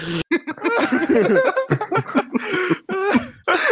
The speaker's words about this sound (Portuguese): O cara começou a tossir.